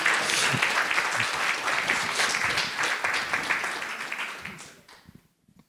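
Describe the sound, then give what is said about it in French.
An audience applauds its three guests and itself one last time at the close of an event, a dense, steady wash of many hands clapping that holds strong for several seconds before tapering off and fading out. “j'aimerais que vous applaudissiez une toute dernière fois nos trois invités ainsi que vous-même.”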